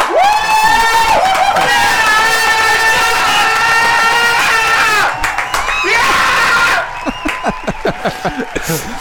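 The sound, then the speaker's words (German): A crowd cheers and screams loudly with high, sustained shrieks, then the noise breaks into shorter excited yells and bursts of laughter toward the end. “Publikum halt eben Schreier losgelassen hat”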